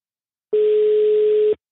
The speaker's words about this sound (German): Ich lasse 80 Stunden klingeln. Bis du rangehst.